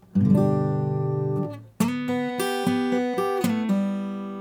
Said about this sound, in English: So I'm going to play a G chord one measure, the part that works over the G chord is this part. Because it, it accents the notes that are in that G chord. Just go ahead and listen. I'm gonna strum the G chord and then play that lick.